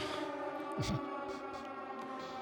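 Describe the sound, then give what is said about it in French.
A civil defense air-raid siren wails steadily, its sustained rising tone holding throughout at moderate loudness, with a brief low thump or muffled noise partway through. “C'est le deuxième mercredi du mois.”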